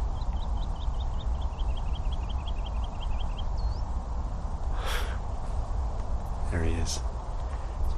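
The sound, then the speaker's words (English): A woodlark, a brown dumpy bird at the top of a tree on Chobham Common, sings a fast, even series of about twenty high, fluting notes over steady background hiss, followed by a rising whistle and a few brief rustling bursts. “That's the woodlark.”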